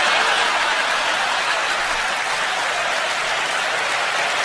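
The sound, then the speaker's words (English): A crowd applauds loudly and steadily, a dense wash of clapping that holds at an even level for several seconds, with no voices standing out, reacting to a joke about basketball player Kevin Durant. “crowd loved it.”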